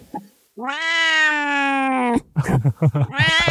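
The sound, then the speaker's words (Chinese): A cat lets out one long, loud, drawn-out meow that rises slightly in pitch at the end, followed by a quick run of shorter, choppier vocal sounds. “你现在你这样听到它叫声吗？”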